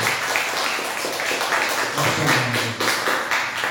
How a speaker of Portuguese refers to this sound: Você pode aplaudir o nome do Senhor? Você aplaude pode ser mais forte?